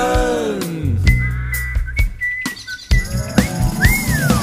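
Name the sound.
people whistling a tune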